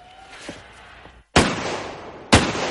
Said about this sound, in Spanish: Al día siguiente, Joyes practica tiros con un arma.